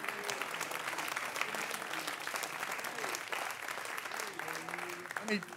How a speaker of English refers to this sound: Can you clap your hands and thank God for that?